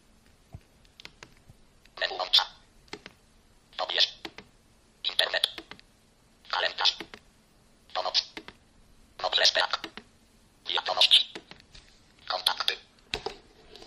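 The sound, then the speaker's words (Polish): Mobile phone keypad buttons, deliberately pressed loudly while unlocking the keypad and browsing the phone's menu with the phone on a table, sound in about nine short bursts of crisp, bright clicking, spaced at a fairly steady rhythm with brief quiet gaps between them. “Będę specjalnie dosyć głośno naciskał klawisze, żeby było y, słychać.”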